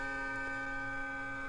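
Experimental music for banjo and tape: a steady, sustained drone of layered held tones with a faint ticking texture underneath, quiet and unchanging, with no voices.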